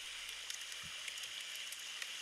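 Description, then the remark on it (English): Fire and water sound effects: a steady, hissing wash of water blends with scattered sharp pops and crackles of a fire, fairly quiet and continuous throughout, with no voices. “Enter fire noises and water noises.”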